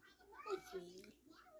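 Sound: cat meowing plaintively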